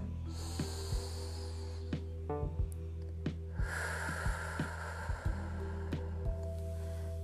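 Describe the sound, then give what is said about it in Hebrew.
A slow, deep breath drawn into the belly and then let out, soft and airy, over a steady low hum with a few faint clicks and no talking. “עכשיו אני לוקחת אור זהוב עם לבן ונושמת נשימה עמוקה לבטן.”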